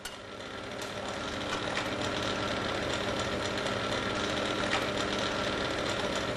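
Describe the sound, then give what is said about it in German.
A hot air device heats an eyeglass frame to make it pliable for pressing in a ground lens, running with a steady, even whir of blowing air and a low mechanical hum, holding the same loudness throughout with no voices over it. “erhitzt Christiane die Fassung in einem Heißluftgerät”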